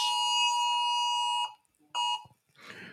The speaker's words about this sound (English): I even have my phone on silent, but when you get these uh, uh, silver alerts and uh, these special alerts, they affect your phone.